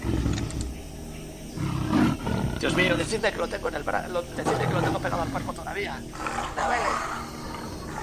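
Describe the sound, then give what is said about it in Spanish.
A jaguar roars and snarls in rough, low rumbling bursts throughout, fairly loud, while a man talks over the growling. “Es un perfecto cazador, ha que esperar el momento. Y ha saltado sobre ti.”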